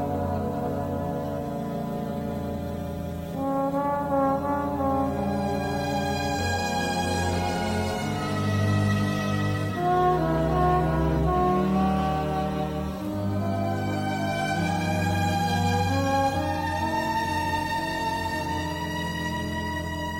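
An instrumental music track plays on its own at a steady, moderate level, with sustained melodic and harmonic tones over a soft bass and no voices.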